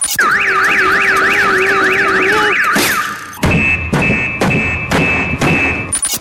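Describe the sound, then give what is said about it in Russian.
A loud car alarm blares nonstop, first with a rapid warbling wail, then switching to a steady tone punctuated by harsh repeated blasts. Insistent, no voices. “В голливудском фильме «Шум» Тим Робинс играет человека, которого сводит с ума непрекращающийся вой сигнализации автомобилей.”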